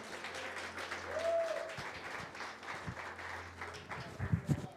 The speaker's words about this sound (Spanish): Alguien puede decir amén, dele un aplauso fuerte a Cristo.